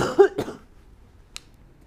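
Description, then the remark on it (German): A single short cough, with a brief throaty burst at the start, followed by near silence and a faint small click. “Ich muss noch kurz husten, warte mal.”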